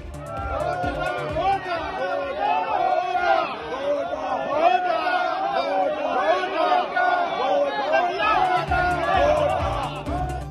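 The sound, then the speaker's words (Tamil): A crowd of many voices shouting and chanting slogans together in the Sri Lankan Parliament chamber, demanding that President Gotabaya Rajapaksa leave, loud and continuous, overlapping voices rising and falling in an uproar for the whole stretch. “இலங்கை நாடாளுமன்றத்தில் கூச்சல் குழப்பம் அதிபர் கோத்தபய ராஜபக்சே வெளியேற கோரி முழக்கம்”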